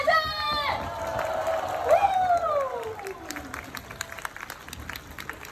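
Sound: audience cheering and applauding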